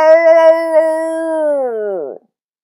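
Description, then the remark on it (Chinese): A voice imitates a tiger's roar with one long, loud, tonal howling cry that holds a steady pitch for about two seconds, then slides downward and stops abruptly. “洞外老虎吼三吼，呜！”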